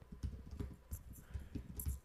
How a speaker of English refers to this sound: I, I thought you were typing it.